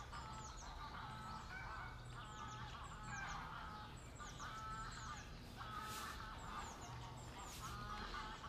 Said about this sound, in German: Da landen gerade zwei Wildgänse. Äh, auf dem Wannsee.